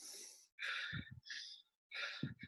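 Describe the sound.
A person imitates Kussmaul respirations, deep, rapid breathing: four heavy, forceful breaths in quick succession, alternating in and out, fairly loud with short pauses between them.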